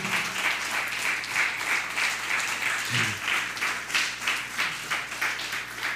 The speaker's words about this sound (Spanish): Dele un fuerte aplauso.